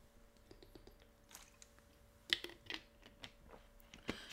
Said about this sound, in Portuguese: Mais uma pausa para a água.